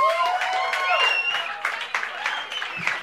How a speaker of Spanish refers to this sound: Espera, aplaudan bien, señores. 11, años de casados.